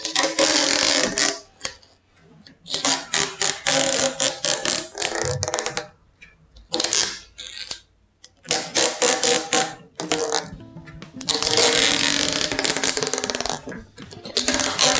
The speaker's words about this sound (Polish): Nie powiem, co mi przypomina to naklejanie taśmy. Co ci przypomina? A jak myślisz? No właśnie, kurde, nie mogę. Wiatry.